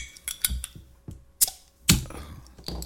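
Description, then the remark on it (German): A Super Bock beer bottle being opened: a few sharp metallic clicks and taps, then a louder snapping pop with a short rush of air, followed by faint clinks. No one speaks. “Und wir sind Superbock, deshalb machen wir mal auf, oder?”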